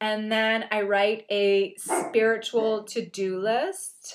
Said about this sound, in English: Sorry, that's my dog barking at human beings walking by because he thinks that they are I don't know, like dangerous intruders. Sorry about that.